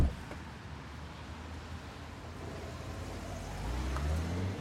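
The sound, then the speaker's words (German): A car carrying two people drives off after stopping at a subway station to let someone out, its engine a low steady rumble under broad road noise, the engine note rising and growing slightly louder toward the end. No one speaks. “Ich schaue den beiden im wegfahrenden Auto hinterher.”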